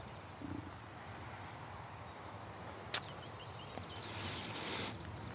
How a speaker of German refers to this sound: Jetzt könnte Fahrstuhlmusik folgen, aber vielleicht hörst du das Vogelzwitschern.